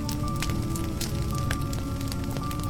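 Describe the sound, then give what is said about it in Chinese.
A campfire, lit beside a tent in an open, well-ventilated spot, crackles steadily, with irregular sharp pops and snaps over a constant low roar of burning wood. No voices. “找了一个空旷通风的地方，支起了帐篷，点起了篝火。”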